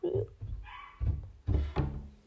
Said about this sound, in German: Ah, die ist doch nicht richtig zu. So, warte. Ich schließe nun die Tür.